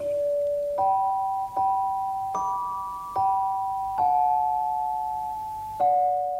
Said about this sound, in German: Es gab das Pausenzeichen, wie hier im Deutschlandfunk.